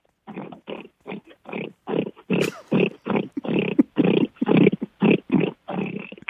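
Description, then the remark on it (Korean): A person imitates a pig as a light warm-up, letting out a rapid run of about a dozen short, grunting oinks in an uneven rhythm, loud, with no other talking. “예, 일단 돼지 먼저 가겠습니다.”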